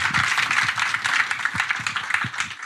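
A small audience of Sky employees at Sky applauds steadily for a few seconds, a dense, even patter of many hands clapping together with no voices over it.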